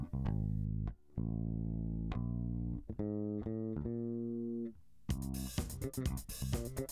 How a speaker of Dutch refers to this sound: Eh, als je dit, eh, de baslijn van het nummer dat, dat we net hoorden nog een keer langzamer gaat beluisteren, dan hoor je dat ook beter.